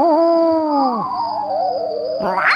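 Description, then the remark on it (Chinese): A rare owl hoots in one long, drawn-out call that holds a steady tone, dips lower into a wavering warble, and ends with a brief rising squeal. No one speaks. “那是一只很少见的猫头鹰。”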